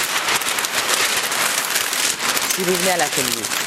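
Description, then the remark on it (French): Continuous crinkling and rustling of a large sheet of wrapping paper from a roll 1.5 metres high, paper used for wrapping and often for painting, a dense crackly texture throughout, with a voice briefly speaking over it near the end. “Ça, c'est le papier pour emballer, mais très souvent, je l'emploie pour peindre.”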